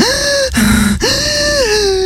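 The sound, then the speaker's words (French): A huge, deep breath is drawn in loudly. It is a strained, voiced gasp in three stretches, with a brief lower rasp in the middle and a long rising-falling pull at the end. “Des respirations énormes pour vérifier que ça marchait toujours bien.”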